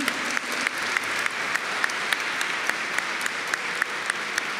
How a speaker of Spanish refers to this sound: Vamos a darle un aplauso al Señor con todo.